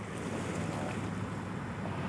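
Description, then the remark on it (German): Steady rushing, splashing water from a theme park water ride boat passing by, recorded with the microphone held near the water, a loud, continuous wash with some wind noise on the microphone and no voices. “Ich glaube, die drei Zentimeter, die du jetzt das Mikro näher an das Wasser gehalten hast, äh, die war mega.”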